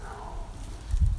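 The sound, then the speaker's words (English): A dog rummages around in dry leaves, giving soft, uneven crunching and shuffling that swells into a brief louder scuffle near the end. “that sound is our dog rummaging around in the leaves.”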